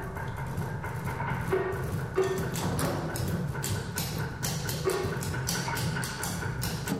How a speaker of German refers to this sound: Wie so eine Zupfkommode, ein Harfenstuhl oder eine Topftrommel klingen, zeigt das neue Kollektiv München bei einer ersten Aktivierungssession.